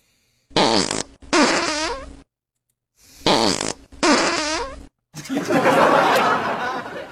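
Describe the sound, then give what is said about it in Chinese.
Loud, buzzy farts burst out in two pairs of sputtering blasts, followed by a longer, hissing, airy release that trails off at the end, with no talking. “这个屁放的不仅声音很大，而且气味就有点像那种腐臭的笨鸡蛋，散发出来的臭味我几乎不能呼吸了。”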